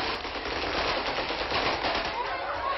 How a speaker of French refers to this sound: D'autres hommes armés pris d'un coup de folie se mettent à tirer sur la foule.